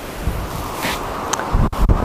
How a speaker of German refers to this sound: wind, Wind, Wind.